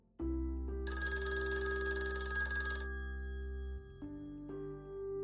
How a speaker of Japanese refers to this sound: そんな引きこもり生活を送っていたある日、普段はほとんど鳴らない携帯の着信音が突然部屋の中に響いた。